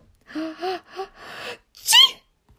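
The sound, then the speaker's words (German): A single sneeze by Peter, hiding in Mr. McGregor's shed, with a drawn-out build-up: several quick, voiced 'ah-ah' inhales followed by one sharp, loud, hissy burst, clear, likely acted out by a voice rather than a real sneeze. “Dann musste Peter plötzlich niesen.”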